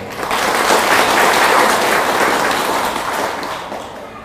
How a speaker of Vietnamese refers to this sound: trong đời thì hãy dâng cao tràn pháo tay để cam kết thực hiện